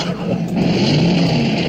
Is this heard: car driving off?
yes